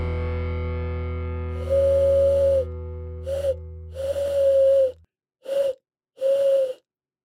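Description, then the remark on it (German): A person mimics an owl with five breathy, wavering hoots of uneven length, loud and close, while a low humming drone underneath fades out partway through. “Das war gar keine Eule. Aber ihr habt jetzt alle gedacht, dass da eine Eule sitzt.”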